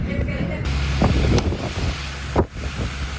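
Fierce, steady hurricane winds roar and buffet the microphone over a low, churning rush of surging sea, with a few sharp gusts and thuds breaking through the constant storm noise, as the strong winds blow roofs off houses.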